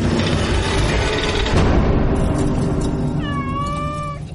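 A single drawn-out cat meow rises near the end, clear, over a dense, noisy background that fills the whole recording.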